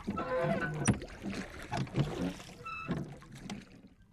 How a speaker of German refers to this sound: Zufrieden rudert Puccini zurück nach Hause.